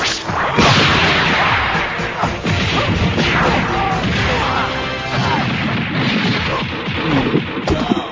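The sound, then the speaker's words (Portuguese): A rapid flurry of cartoonish fight effects: punches, thwacks and smashes mixed with swooshing whooshes, loud and dense throughout without letting up. “Soco na cara.”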